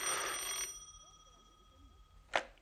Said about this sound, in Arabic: رد على التليفون يا سيدي رد لما نشوف اخرتها